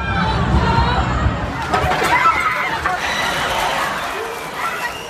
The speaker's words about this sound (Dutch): Er wordt nog geprobeerd de chauffeur te stoppen, maar hij versnelt en begint de dodenrit over de drukke promenade des Anglais. Mensen rennen voor hun leven.